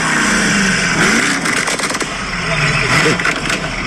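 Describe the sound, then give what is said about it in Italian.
A powerful 750-horsepower engine revs loudly, its pitch climbing in bursts, with sharp crackling backfire pops around the middle and near the end. “Sono 750 cavalli su un mostro.”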